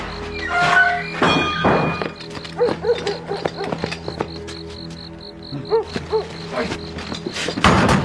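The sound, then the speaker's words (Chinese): A door being hurriedly shut with a heavy wooden thunk, followed by a scatter of dull knocks and thumps, with faint murmuring sounds and a steady high hum underneath. “这样，赶紧关门，走走走，快走！”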